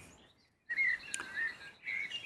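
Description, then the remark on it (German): Birds chirp and twitter outdoors on a cloudy day with fog over the hills, in quick bright bursts, a few loud calls over a steady background of fainter birdsong, with no talking. “Die Vögel zwitschern, wie man vielleicht auch unschwer hören kann.”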